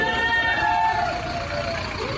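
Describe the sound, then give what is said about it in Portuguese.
A heavy armored truck's engine rumbles and whines steadily as it maneuvers on the street, moving aside to make room to pass, set against a constant wash of outdoor street noise. “Agora o carro vai sair um pouco da rua, abrir o espaço, porque vai passar aqui. É um carro forte, né?”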